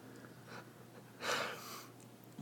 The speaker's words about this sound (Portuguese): É o Arnés roncando aqui. Olha isso, mano. Ele... Parece um trator, velho.